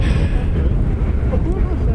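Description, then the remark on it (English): A rally car roars past on a 20-kilometre stage, throwing spray on a dry day after rain all night. A heavy continuous engine rumble with a brief rising whine as it speeds through, loud and dense for the whole two seconds. “Oh, here comes another one now. Oh, he's flying.”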